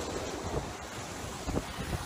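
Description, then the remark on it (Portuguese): Steady wind roars across the microphone while waves slosh and splash, a continuous open-sea rush with occasional louder surges of water against a kite-powered boat sailing solo across the Atlantic toward the Caribbean. “é assim rumo às Caraíbas neste mais recente desafio de atravessar o Atlântico em solitário num barco a kite desenvolvido por mim.”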